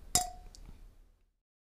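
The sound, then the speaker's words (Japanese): A single bright glass clink rings out as beer glasses are clinked in a toast over the first beer, Kyoto Brewing's Kuroshio no Gotoku, followed by a faint softer tap and a short ringing decay, with no talking. “それではいまあまあそんな感じで1杯目のビール早速いっちゃいますか、ははい、いっちゃいましょうか はいでは乾杯乾杯”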